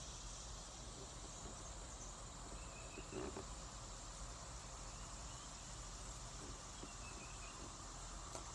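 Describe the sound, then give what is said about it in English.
Birds chirping outdoors in a dense, continuous chorus, mixed with a steady high insect-like buzz and a low rumble of background noise, moderately quiet with no talking. “Listen to these birds.”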